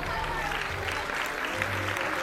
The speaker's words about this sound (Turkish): Sınıfta bir alkış tufanı koptu.